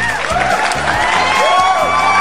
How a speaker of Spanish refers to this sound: Aplausos para la nueva integrante del Pichi Barroco Radio a huevo.